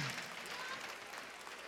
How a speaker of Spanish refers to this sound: Ya tenemos los seis. Un aplauso para los seis. Un aplauso para los seis.